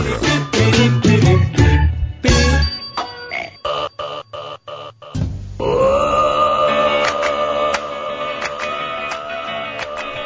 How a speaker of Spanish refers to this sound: escuchaste del eruto? Tan tarde llegamos. Se dice eruto, es eructo, ¿verdad? Eructo. Con C.